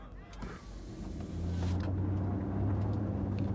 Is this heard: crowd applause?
no